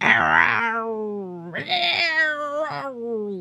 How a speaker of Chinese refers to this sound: 果然，在牛快吃完的时候，两只老虎打起来了。他俩怒吼着扑在一起